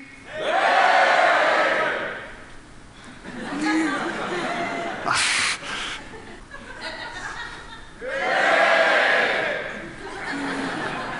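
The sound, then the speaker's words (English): A group of audience members on one side shouts together on a count of three during a demonstration of locating sounds with eyes closed: two loud bursts, a broad roar of many voices, separated by a stretch of scattered chatter and laughter. “Okay, how about if everyone over there shouts?”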